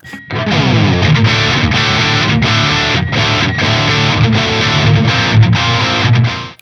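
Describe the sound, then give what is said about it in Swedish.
A heavily distorted electric guitar plays through a JCM 800 amp, recorded with a Royer microphone, dense and loud with thick low chugging chords and bright harmonics, ringing continuously with brief rhythmic breaks between strummed phrases. “Och eh, så här låter Royer-micken.”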